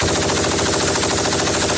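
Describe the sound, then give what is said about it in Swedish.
A KS58 machine gun fires in a continuous rapid burst, dense and loud, each shot blurring into a steady rattling roar with no pauses across the whole stretch. “De sitter liksom, det är en KS58, får vi höra med eldtung bandmat och kulspruta.”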